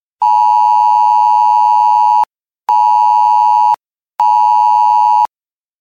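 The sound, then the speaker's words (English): A loud, harsh Wireless Emergency Alert (WEA) tone from a mobile phone blares in three bursts, one long followed by two shorter ones, with brief silent gaps and no talking. “Wireless emergency alerts are emergency messages sent to your mobile device accompanied by a loud tone and vibration.”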